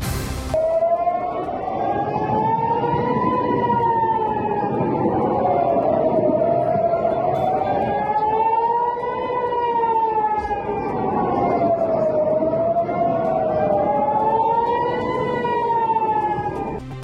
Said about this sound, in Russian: Сирены раздавались по всему южному и центральному Израилю, а в городах Тель-Авив, Ашкелон и Кфар-Авив были слышны взрывы.